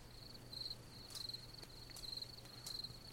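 Crickets chirp quietly and steadily in short trilled bursts, about one every second, over a continuous high insect hum and a faint low background drone, with no voices.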